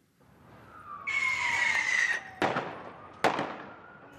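Fireworks fired at police during street riots by unionists in Belfast, Northern Ireland: a shrill, hissing whistle climbs and fades over about two seconds, then two sharp, loud bangs crack out a moment apart over a low rumbling background. No one speaks.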